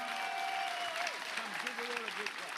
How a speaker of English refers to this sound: Clap your hands о, ръкопласкай.